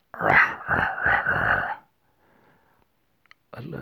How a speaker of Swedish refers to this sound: Äh, jag tror istället för att mima eller nynna. Så gnisslar jag tänder till en låt som jag så spelar i mitt huvud.